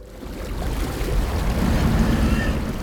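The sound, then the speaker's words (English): Rough water in the center of a lake churns and sloshes in a steady, dense roar, with low rumbling surges and a whooshing, wind-like hiss throughout, fairly loud with no voices, while the air is completely still. “The air was completely still, but the water in the center was churning madly as if swept up in a storm.”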